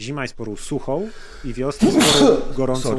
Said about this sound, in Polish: na zdrowie.